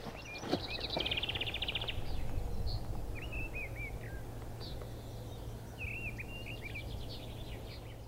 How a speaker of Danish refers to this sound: Ja, spørgsmålet er, om det er en solsort eller en misteldrossel, der sidder derovre bagved og synger et eller andet sted.